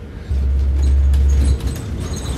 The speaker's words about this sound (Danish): Nu sidder vi i bussen, og der er to andre mennesker.